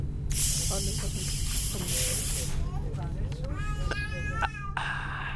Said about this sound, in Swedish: Nu kommer min almdudler pysa sådär fruktansvärt mysigt som bara en almdudel kan göra.